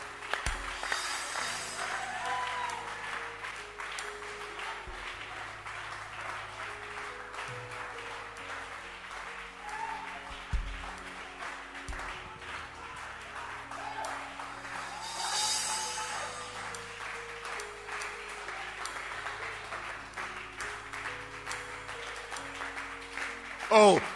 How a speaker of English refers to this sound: You can clap your hands if you want to clap your hands.